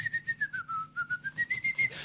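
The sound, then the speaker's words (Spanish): A person whistles the jingle of the show Racing Online, a clear steady tone gliding slightly down then back up, with soft rhythmic puffs of breath pulsing along with it. “¿Sabe silbar o no sabes silbar?”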